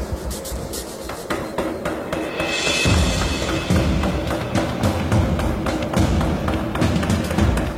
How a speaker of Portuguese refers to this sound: Parte de minha estratégia é tomar o controle desse martelo, porque tenho que ser o primeiro a acabar a forja bruta.